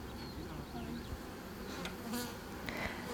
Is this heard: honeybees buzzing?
yes